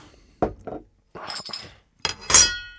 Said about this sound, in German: Komm, ich mach dir sogar deins auch. Machen wir mal mein Getränk hier auf.